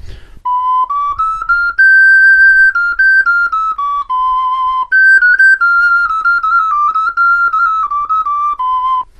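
A small handmade two-pipe panpipe whistle, with one larger and one smaller pipe, plays a steady melody of clear, breathy notes stepping up and down between a few pitches, each held briefly with small articulated breaks, loud and alone with no talking.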